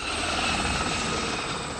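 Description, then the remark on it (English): A helicopter propeller whirs steadily and loudly as it is used to bring someone down, a dense continuous drone with a rapid pulsing chop, without any voices. “Now the helicopter propeller will bring you down here are you ready?”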